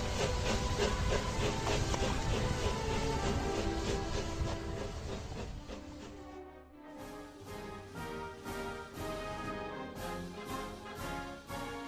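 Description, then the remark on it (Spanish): A steam train rolls along the rails, starting with a loud steady rush of hissing noise, then settling into a rhythmic chuff-chuff beat of regular puffs, prominent with no voices. “Se inventó la máquina de vapor, el ferrocarril y los barcos a vapor.”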